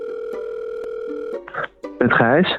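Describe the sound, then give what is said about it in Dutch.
A steady, mid-pitched electronic telephone ringing tone of an outgoing call holds for over a second, shifts briefly, then a voice answers the call over the line. “Dus ik heb hem eventjes gebeld om een antwoord te geven op zijn brandende mandarijnenvraag.”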